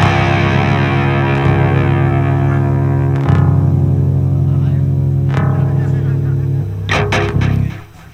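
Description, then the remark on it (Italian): An electric guitar with a shimmering chorus effect rings out sustained chords, strummed anew every couple of seconds, closing with a few quick scratchy strums as the sound fades. “po' di chorus ci sta, un po' di chorus ci sta.”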